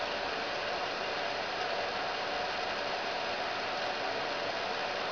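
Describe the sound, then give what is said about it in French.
A steady, unbroken hiss fills the whole clip at an even level, like a cassette tape running in a player, with no voices or distinct mechanical clicks standing out. “Eh, le bruit de la cassette, quoi”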